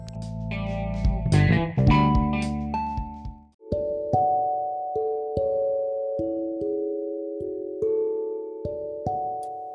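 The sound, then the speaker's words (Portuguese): A telephone rings with a clear, melodic electronic ringtone, its sustained tones stepping through a repeating tune after a brief, dense burst of chiming notes. “enquanto o meu telefone toca, eu paro um pouquinho para atender e volto já já.”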